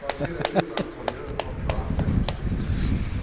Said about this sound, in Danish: Så klapper jeg.